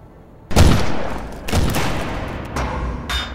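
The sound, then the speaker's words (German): Pistol shots ring out, four sharp, loud blasts spaced roughly a second apart, each leaving a short echoing tail. There is no talking. “Äh, wenn er, sich, wenn er sich zögert, ziehe ich meine Voltpistole und feuere drauf.”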